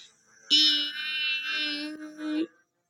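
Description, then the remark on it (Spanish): A loud, high-pitched mosquito whine buzzes steadily near the ear in the early morning for about two seconds, with a brief dip in the middle before it cuts off abruptly. “Mi abue me dijo, hay zancudos, por eso se debe colocar un toldillo.”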